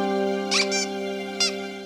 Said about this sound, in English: you forgot your Squeaky toy.